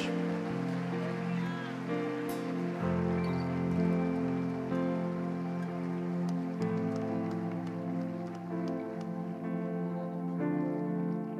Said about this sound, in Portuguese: Você pode aplaudir a Ele essa noite bem forte. Glória a Deus.